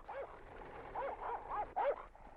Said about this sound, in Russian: Ух ты, какой пес злющий.